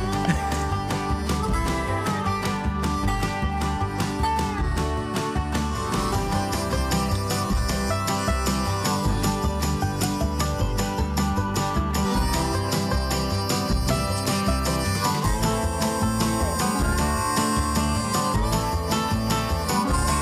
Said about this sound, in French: Je vous envoie le jingle, les gars?